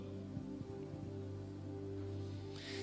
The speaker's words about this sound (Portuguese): assim como a gente já viu que Deus é quem sustenta a terra molhando hoje com essa chuva.